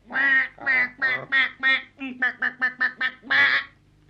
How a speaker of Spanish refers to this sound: Grazna el pato patoso.